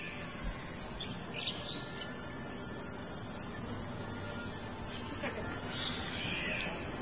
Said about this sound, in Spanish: Bird Sounds Cockatoo. Ya te lo mandaron por, por, el link. A ver, vamos a escucharlo.